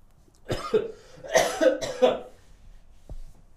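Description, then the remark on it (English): A person coughs several times in a quick, harsh burst of three or four coughs, followed by a short pause and one faint low thump. “That's what you're gonna be remembered by. The coughing dude.”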